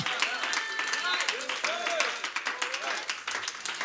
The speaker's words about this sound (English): My kid asked me one time, said, My goodness, Dad, why do you clap so loud? I said, I've had a lot of experience.